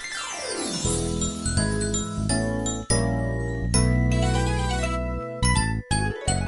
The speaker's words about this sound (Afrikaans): Maar kom ons luister eers na 'n liedjie